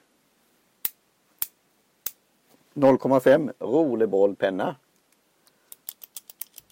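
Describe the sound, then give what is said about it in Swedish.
Three crisp scissor snips spaced about half a second apart, then a person speaks briefly, followed by a quick run of lighter snipping clicks. “Eh, klipp.”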